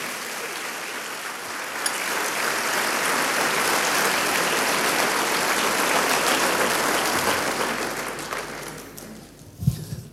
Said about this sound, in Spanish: ¿Cuánto da un aplauso al Rey de Reyes, Señor de los Señores?